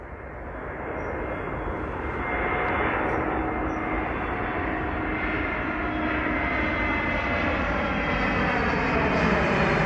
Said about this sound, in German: Eigentlich landet dieser Flieger gerade. Seinen Lärm habe ich mit dem Handy aufgenommen vor ein paar Tagen am Rande der Tapenbeek. In dieser Folge soll es also um den Fluglärm in Großborstel gehen.